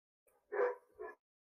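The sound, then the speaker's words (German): A dog barks twice in quick succession, a longer bark followed by a shorter one, outside an open window on a warm late evening, sounding somewhat muffled with no talking. “Jetzt, wenn man das hört, jetzt bellt ihr einen Hund, den man.”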